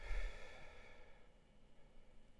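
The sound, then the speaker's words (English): A single soft, breathy exhale from a deep breath during meditation, fairly quiet, tapering off over about a second and then fading into near silence. No one speaks. “So breathing in and breathing out.”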